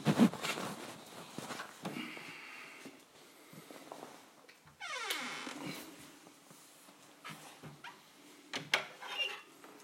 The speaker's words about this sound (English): The dog goes sniffing the cat, and the cat puts up with it for a minute or two.